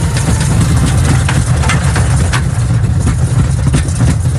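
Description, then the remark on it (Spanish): An aircraft passes through turbulence: a loud, constant low engine drone fills the whole clip, broken by brief irregular rattles and jolts. No one speaks. “si suena un avión pasando por una zona de turbulencias que decimos que no es muy confortable, aunque en realidad es plenamente seguro.”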